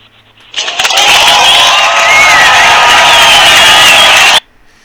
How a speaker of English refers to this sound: Okay, you know what? Let's give Joshua a round of applause for his opening statement.